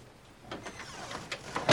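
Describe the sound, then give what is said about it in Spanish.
A door swings shut with a few soft scraping knocks, ending in a louder thud as it closes. No voices are heard. “Cierra.”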